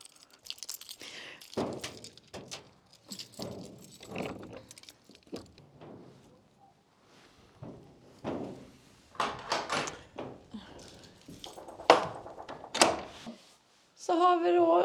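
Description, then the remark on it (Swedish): A door to a place with information and exhibits about rock carvings being unlocked and opened: a run of metallic jangles, clicks and knocks, then a louder rattle and creak at the end, with faint voices murmuring in between. “Kan öppna så länge?”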